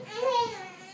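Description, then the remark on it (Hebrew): A baby lets out a single short, high-pitched cry, a sustained wavering wail lasting about a second, moderately loud with no talking over it. “מי שומע את זה? מי שומע את התינוק שבוכה?”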